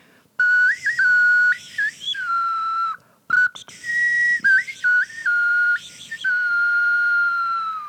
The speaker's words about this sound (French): des petits sifflets euh, qui se tiennent comme ça